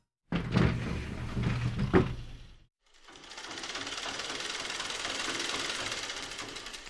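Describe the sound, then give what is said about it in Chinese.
A sewing machine in an inner room clatters in short bursts with a low mechanical hum, pauses briefly, then settles into a steady, even whirring rattle that runs on at moderate volume. “里屋传来缝纫机哒哒哒哒的声音。”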